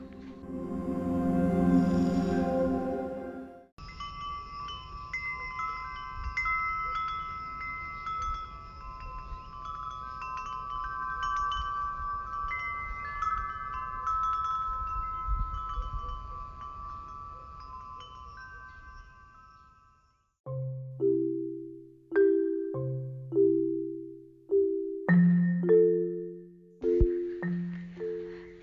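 Wind chimes recorded at Trúc Lâm Zen monastery ring in overlapping, sustained metallic tones that shimmer together. They give way to a slower series of lower, separate chime strikes, each fading out before the next.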